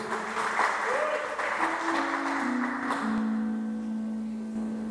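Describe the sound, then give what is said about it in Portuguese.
An audience claps for God in a dense, steady wash of applause over sustained keyboard chords, with the clapping thinning out after a few seconds while the held notes continue. “Dá mais uma linda salva de palmas ao nosso Deus.”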